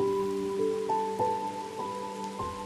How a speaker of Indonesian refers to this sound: Namun, Malam ini tak begitu sepi karena ada suara hujan.